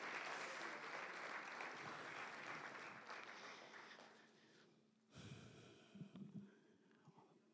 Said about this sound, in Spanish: A su nombre, denle un aplauso si es para el Señor, ¿me entiende?